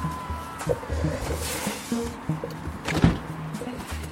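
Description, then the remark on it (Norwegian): Getting into a car at an old roadside diner in Løten, Hedmark, Norway: a door thunks shut and an electric window whirs, with rustling movement and a sharp knock near the end, moderately loud with no talking. “Men da setter vi oss i bilen, og så Vi hopper i bilen min, vi.”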